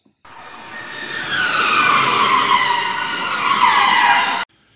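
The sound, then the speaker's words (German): A race car roars at speed on a fast lap during a first free practice session, a loud, sustained high-revving engine whine with a slowly dropping pitch, then cuts off abruptly. No voices. “der sitzt im Auto und fährt gerade eine seiner schnellen Runden.”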